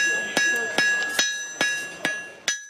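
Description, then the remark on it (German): Sharp metallic hammer blows ring out on an anvil as metal is worked, six strikes at an uneven, steady working pace, each leaving a bright lingering ring that fades before the next hit. “Braucht man in der Regel nur einen Amboss und einen Hammer und dann konnte man anfangen, das Metall zu bearbeiten.”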